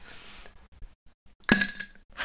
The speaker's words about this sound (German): Aber ich bin diejenige, die das Themenglas schüttelt.